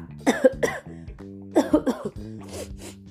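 Two quick clusters of harsh coughs from a cold, each a pair of sharp bursts, separated by a short pause, with a faint sniffly sneeze-like burst at the end over a soft sustained tonal background.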